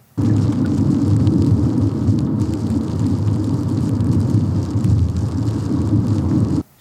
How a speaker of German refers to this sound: Dorian hat uns auf dem Weg hierher die Untermalung geschickt, Regen auf der Windschutzscheibe für Stunden.